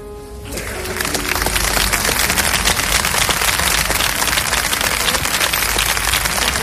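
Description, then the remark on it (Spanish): Hundreds of people gathered at the town hall break into sustained applause in honour of the guards, dense overlapping clapping that swells within the first second and holds steady and loud throughout, with no voices standing out. “Los aplausos en honor de los guardias hacían que incluso los vehículos que bajaban por la calle principal se detuvieran para unirse al homenaje.”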